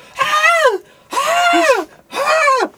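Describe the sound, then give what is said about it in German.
A human voice imitates a marten's scream: three shrill, rising-then-falling screeches, each about half a second long, evenly spaced and loud, with short silences between them. “Du hörst krabbeln und du hörst den Marder schreien, wirklich.”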